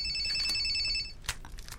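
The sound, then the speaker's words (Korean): A mother's mobile phone ringtone chimes with steady, sustained high electronic tones, fairly loud, followed by a few short clicks and rustles as the ringing cuts off. “엄마 핸드폰이다.”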